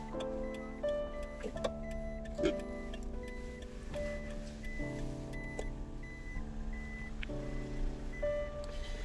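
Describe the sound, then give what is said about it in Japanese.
A truck carrying vending machines, which had stopped at a parking lot entrance, backs up, its reversing alarm beeping in a steady repeating pattern over a low, constant engine rumble, with no voices. “ここ止めないでもらえますか駐車場の出入り口なんで、えー、すぐ移動してもらいます”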